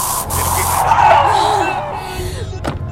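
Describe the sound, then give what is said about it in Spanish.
A self-defense spray hisses in a steady, forceful burst for about two seconds, loud, followed by a brief sharp noise as it cuts off. “Si no sabes karate, lleva siempre un spray de autodefensa en el bolso.”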